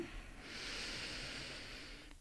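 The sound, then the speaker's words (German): A single slow, steady inhale through the nose, a soft airy rush lasting nearly two seconds, fairly quiet, with no talking around it, taken as part of a guided breathing exercise before humming a tone. “Wir atmen über die Nase ein.”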